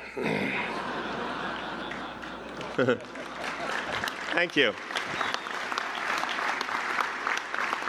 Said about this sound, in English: Finally, the applause I've been waiting so long for.